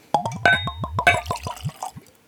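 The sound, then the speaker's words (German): Sour mash whiskey glugs out of a 1-litre Bottled in Bond bottle into a glass in a quick run of about ten hollow gulping pulses, fairly loud, with the pitch creeping upward as the glass fills. No voices. “Kräftig das Glas voll machen, Kind.”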